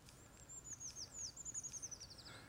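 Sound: eurasian treecreeper song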